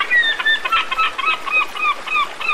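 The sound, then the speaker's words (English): A seagull calls repeatedly in a rapid string of shrill, squawking cries, loud, with no one speaking. “Was that a fucking seagull?”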